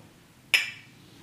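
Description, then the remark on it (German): A single sharp, bright clink of two mugs knocking together in a toast, one of them full, with a short ringing decay fading over a fraction of a second, otherwise quiet. “Ähm, ja wollen wir trotzdem anstoßen, obwohl Stoßen es zwei Tassen sind?”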